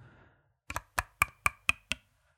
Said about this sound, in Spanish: No, era, era mi móvil, ¿vale? Estaba usando mi móvil para golpear mis cascos.